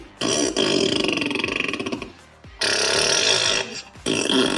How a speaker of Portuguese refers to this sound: Alexa, solta um peido.